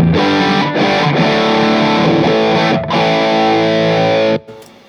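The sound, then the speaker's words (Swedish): A distorted electric guitar plays sustained chords through an amp with its treble boost turned down and the gain at two o'clock, giving a slightly darker, less bright top end, steady and loud, with brief dips between strums before cutting off near the end. “Om man tycker att det blir för bright så kan man ställa ner lite av den här topplyften.”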